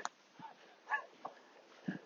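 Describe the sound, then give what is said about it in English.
A dog out on a walk, popping out of a gap in a fence, lets out a few short, scattered yips and barks, fairly faint, with quiet outdoor background between the calls. “Uh, clever play from that dog walker, maybe just slightly flummoxed by his own dog there, popping out of the gap in the fence.”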